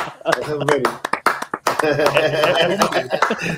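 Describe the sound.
Scattered applause of a few pairs of hands, sharp irregular claps clustered in the first half, heard under voices that keep talking over them.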